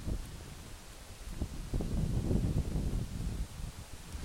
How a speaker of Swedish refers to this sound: Så är det alltså suset både från Vättern och från träden. Ja. Att jag, det, är, det är som stereo i harmoni för mig här känner jag.